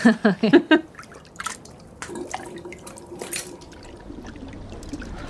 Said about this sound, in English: As the water splashed and churned around her mouth, foul tasting water.